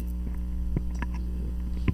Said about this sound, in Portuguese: É o ar-condicionado que tá forte. É verdade. Demais. Às vezes é o ar-condicionado que tá dando ruim.